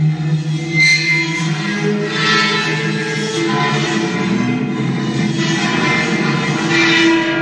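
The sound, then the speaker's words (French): A metal structure fitted with springs of different diameters and lengths, struck by an operator with sticks, producing a continuous metallic drone with shimmering, screeching swells every second or two, reverberant and fairly loud, with no voices. “Ce son est produit par une sorte de structure métallique équipée de ressorts de différents diamètres et de différentes longueurs qu'un opérateur titille avec des baguettes”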